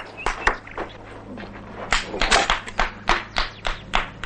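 A single person claps their hands in a quick, slightly uneven series of sharp, close smacks, with a faint steady hum underneath and no voices.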